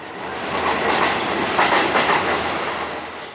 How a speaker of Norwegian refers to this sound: Så setter hun toget i bevegelse bortover skinnene, inn mot en tunnel.